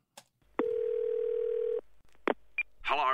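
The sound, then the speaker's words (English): A loud, steady electronic telephone tone holds for just over a second, followed by a couple of short clicks and a brief beep before a voice begins speaking a voicemail message. “And we've got direct access to his voicemail. So let's have a listen.”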